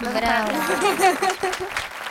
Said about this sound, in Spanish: Aplausos para el TAR.